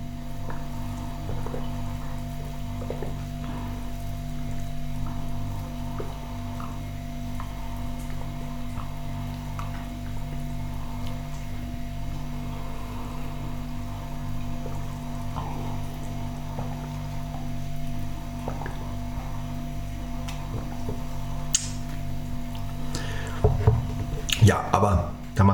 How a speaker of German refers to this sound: Vielleicht mal einen Schluck Wasser trinken.